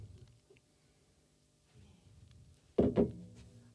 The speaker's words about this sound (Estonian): mul on tegelikult ikkagi olemas siin, aga natuke panen veel blenderisse vett juurde ja siis kohe olen tagasi.